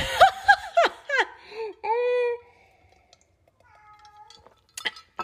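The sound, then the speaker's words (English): A male house cat, annoyed, meows several times in quick succession, ending in a longer drawn-out yowl, then lets out a few softer, fainter mews after a brief pause. No one speaks. “is really annoyed with me in the background. He's my roommate's cat.”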